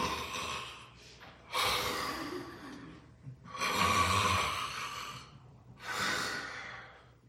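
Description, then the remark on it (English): A voice imitates snoring with three loud, drawn-out rasping breaths, spaced a couple of seconds apart, with no talking in between. “Uh, with the kids in the house would go to bed and the kids would be in their room and dad would start to to breathe out loud. We we call that snoring.”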